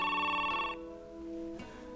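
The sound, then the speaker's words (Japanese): A telephone rings at the Okakura family home while breakfast is being prepared, with a bright, trilling electronic tone that cuts off partway, followed by a lower lingering tone; clear with no talking. “岡倉家今節子がご機嫌で朝食の支度をしている電話が鳴る”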